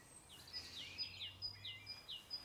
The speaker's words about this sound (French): Et les oiseaux. Là, actuellement, c'est agréable, mais pour vous, c'est plutôt inquiétant.